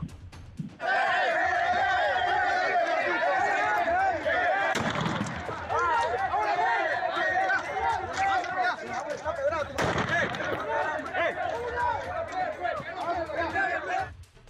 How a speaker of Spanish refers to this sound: Todo esto fue documentado por los propios afectados y fue videograbado con sus teléfonos celulares. Escuchemos un poco de lo que se vivió en este momento, el ambiente que se vivió eh, cuando se realizaron los disparos.